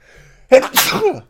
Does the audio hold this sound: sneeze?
yes